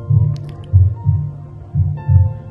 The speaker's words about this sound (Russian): То, что вы слышите, это символическое отображение биения человеческого сердца, живого сердца.